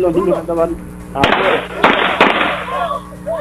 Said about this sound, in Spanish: la señora con una pistola, este hermano le disparó supuestamente al perro, pero no le dio al perro, sino que terminó dándole a su propio hijo.